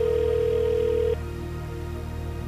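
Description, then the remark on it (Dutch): A single steady telephone ringback tone sounds clearly for about a second as an outgoing call is placed, then cuts off, leaving a low background hum with no talking. “Ik ga eens even bellen.”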